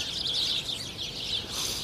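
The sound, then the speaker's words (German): Unseen birds in bushes beside the water at Weiglandufer chirp steadily in dense, overlapping high-pitched calls, a continuous twittering chorus with no voices present. “Ich laufe hier am Weiglandufer vorbei und ich höre Vögel.”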